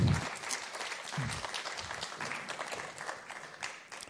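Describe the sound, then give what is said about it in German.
An audience breaks into steady applause, a dense wash of many hands clapping at an even level for several seconds, with no one speaking over it. “Du hast mir mal, ja, geben wir einen Applaus.”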